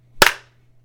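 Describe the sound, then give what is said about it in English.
A single sharp hand clap for syncing, loud and snappy with a slightly doubled attack, decaying quickly over a steady low hum; no one speaks. “and we're going to do a sync clap in five, four, three, two, one.”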